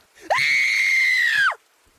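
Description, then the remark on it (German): A woman lets out a single loud, high-pitched scream of fear at the sight of a bleeding severed head, held steady for over a second before breaking off with a falling tail. No one talks. “Mich packte die Angst und ich schrie auf.”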